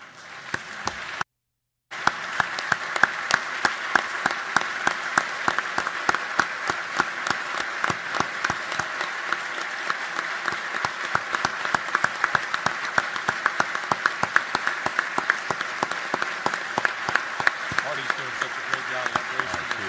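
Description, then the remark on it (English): A large audience in a legislative chamber applauds steadily during the governor's State of the State speech, honoring guests in the gallery, dense overlapping claps for nearly twenty seconds after a brief silent break near the start. “I hope you will join me in applauding the bravery of those that are with us in the gallery today.”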